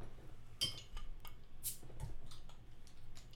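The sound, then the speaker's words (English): Glass beer bottles clink and click as twist-off caps are opened, one releasing a brief sharp hiss of gas, among light rattling handling noises and no talking. “Oh, and they are twist offs actually, but feel free to use your bottle opener.”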